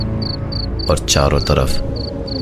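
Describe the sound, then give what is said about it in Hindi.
Steady, evenly spaced cricket chirps repeat through the whole stretch, a constant high trill in the background in pitch darkness at a graveyard at night after a day of rain, while a man speaks briefly over the middle of it. “घनघोर अंधेरे में सिर्फ झिंगुर की आती हुई आवाजें”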